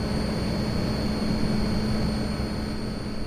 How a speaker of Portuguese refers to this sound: Compara isto aqui. Ali eu comparo. Sabe que é uma etar a trabalhar?